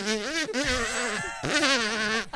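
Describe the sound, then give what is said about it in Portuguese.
A voice mimics a two-stroke motorcycle engine with a nasal, buzzing drone that revs up and down in pitch, in two loud bursts separated by a brief break. “Como que é o barulho da, da moto? As da moto dois tempos é.”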